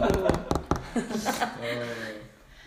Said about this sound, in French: Là, je claque la porte.